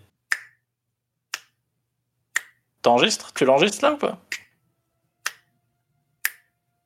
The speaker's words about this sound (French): on va faire la conclusion, mais je vais claquer des doigts, moi, tu sais.